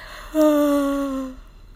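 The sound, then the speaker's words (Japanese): A single drawn-out yawn during a broadcast, voiced and gradually falling in pitch, fairly loud, lasting about a second before trailing off. “放送中にあくびするとかあかんよね。”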